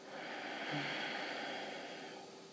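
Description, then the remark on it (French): A slow, steady exhale through the mouth during yoga breathing, exhaling slowly on a count of five; breathy, a soft even hiss lasting a couple of seconds before fading slightly at the end, with no talking. “Donc c'est-à-dire la respiration où vous inspirez lentement et vous expirez lentement sur 5 temps, c'est-à-dire on inspire sur 5 et on expire sur 5.”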